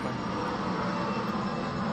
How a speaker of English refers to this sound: what is that that is beautiful that's a uh, that's a small plane. that's like a that's a beautiful sound yeah that's it's like a little Learjet or something crazy